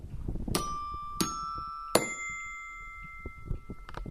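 A short French radio jingle played before the Brivadois classified-ads segment: three bright bell-like chime strikes about two-thirds of a second apart, each ringing on with clear sustained tones over a low, steady background rumble.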